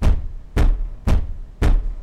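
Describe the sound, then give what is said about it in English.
Four soft, evenly spaced knocks on a closed wooden closet door, each a dull thud with a brief fade, repeating about every half second with no voices. “Now, it's more like a gentle knocking on the closed closet door.”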